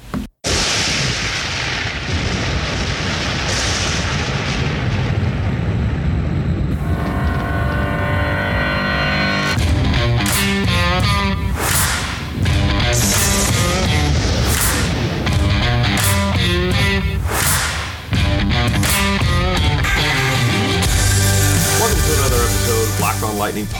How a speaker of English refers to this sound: So without further ado, let's play that music.